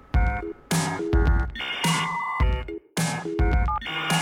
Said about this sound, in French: Le son du modem 56K, lui, et entrer dans la pop culture de toute une génération.